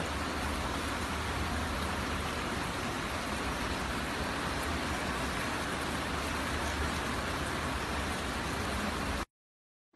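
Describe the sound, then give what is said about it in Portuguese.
Heavy rain pours down in Palhoça in a steady, dense roar for about nine seconds, loud, then cuts off abruptly; recorded by a listener and sent as audio. No voices. “Chovendo forte em Palhoça nesse momento.”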